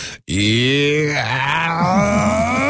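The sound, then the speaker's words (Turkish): A voice imitates a slowly building sneeze, as if started from the little toe and carried up through the body: a loud, strained, drawn-out groan that wavers in pitch for over two seconds, with a brief stuttering catch near the end. “Onlar ama bak bazıları gerçekten hapşırığı böyle içeride gezdiriyor. Böyle ayak serçe parmağından başlatıp çıkartanlar var mesela böyle.”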